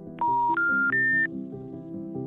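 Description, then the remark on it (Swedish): Three rising electronic telephone tones, signalling a disconnected number, play in quick succession, each a steady beep a bit higher than the last, clear and loud, followed by a soft background hum. “Tills en dag, då du skulle slå numret till den lilla familjen på Bollmorabacken, så var numret avstängt.”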